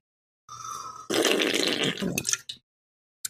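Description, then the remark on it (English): A wet slurp from a water bottle: a thin whistling suction gives way to about a second of loud, gurgling, noisy sucking, then a few short wet bursts before it stops. “I'm another slurp.”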